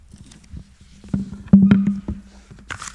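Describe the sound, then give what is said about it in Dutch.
A sheet of paper is turned over, giving a few crisp rustles and soft crackles over about a second, then a brief papery swish, with a low steady hum underneath. “Even omslaan hoor.”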